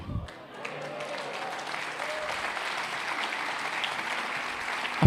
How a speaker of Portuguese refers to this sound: Aplauda o nome de Jesus. Aplauda o nome de Jesus, querido.